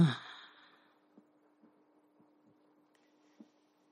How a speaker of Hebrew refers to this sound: ובואו ניקח כמה נשימות עמוקות. שאיפה עמוקה ונשיפה עמוקה.